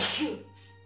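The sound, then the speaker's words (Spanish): One sharp sneeze bursts out at full loudness and fades within a moment, leaving only a faint steady hum in the background. “Salud. Una disculpa.”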